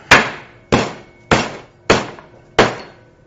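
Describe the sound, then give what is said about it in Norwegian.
Meat being pounded with a kitchen utensil while preparing saltimbocca: five sharp, loud thuds land at a steady, even pace, each with a brief fading ring. No voices are heard. “Bruk det du har av redskap til å banke.”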